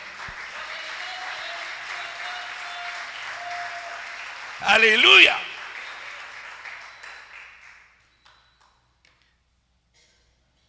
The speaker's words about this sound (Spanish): Denle un aplauso al rey, denle un aplauso al rey.